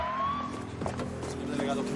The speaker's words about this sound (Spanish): Llega en coche el delegado, el superior de Rigoberto.